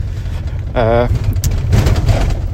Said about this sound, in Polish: jak słyszycie pewnie w tle e, odgłosy telepiących się rzeczy w moim aucie, ponieważ chyba pierwszy raz nagrywam odcinek e, po prostu z takiego zadupia, z takiej drogi, że pożal się Boże.